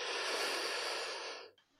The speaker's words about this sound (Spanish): Las pisadas se detuvieron y noté una respiración pesada a mi lado.